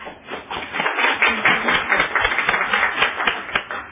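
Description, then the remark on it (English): A group applauds the speakers at the close of a meeting, steadily for about four seconds, a dense, even patter of many hands clapping at once with no voices over it. “Let's thank our speakers.”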